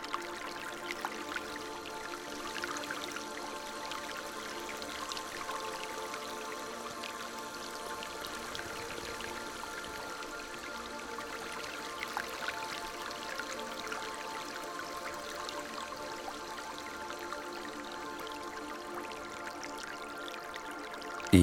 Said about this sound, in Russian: Смывает пену теплой водой